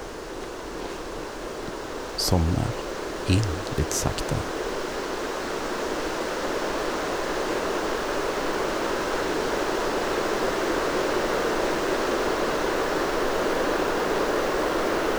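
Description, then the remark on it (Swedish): Steady, enveloping rush of wind through forest trees near a lake, recorded with a parabolic microphone aimed at the lake, a continuous soft roar that swells slightly over time, with a man speaking quietly for a moment near the start. “Jag lägger mig ner och lyssnar på vindens brus.”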